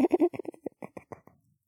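A turtle vocalizes in a quick burst of about ten squeaky, nasal calls, loud at first, then growing fainter and trailing off, with no other sounds around it.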